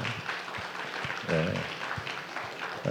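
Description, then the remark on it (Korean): A church audience applauds together to bless the children of the Haneul Ssiat YouTube group, a dense, steady wash of clapping from start to finish, with a voice briefly rising above it partway through. “축복합니다. 박수하겠습니다.”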